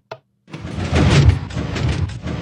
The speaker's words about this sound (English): You want to watch the, yeah. the vault door and see how it opens?